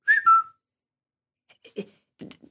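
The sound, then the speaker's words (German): A short two-note whistle sounds clearly at the start, followed after a pause by a few sharp, slapping bursts of hand clapping, with two claps standing out, given as signals in a children's game. “Das war doch ein Pfeifen. Und da hat doch jemand zweimal in die Hände geklatscht.”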